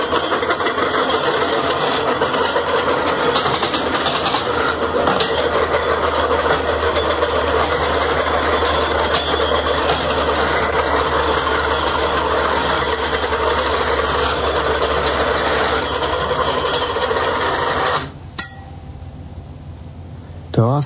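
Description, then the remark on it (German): A percussionist improvises on the metal cores of tape reels in a radio studio, building a loud, dense, droning metallic texture with scattered strikes, sustained for about eighteen seconds before cutting off abruptly. “beim Improvisieren mit den Metallkernen von der Tonbänder im Studio von Kanal K”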